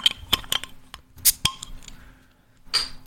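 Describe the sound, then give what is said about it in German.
Glass clinks and sharp clicks as a glass beer bottle is handled and opened, followed by two short bursts of hiss, with no one talking. “Äh, ja, ah, Moment, ist, das Bier ist noch nicht mal offen.”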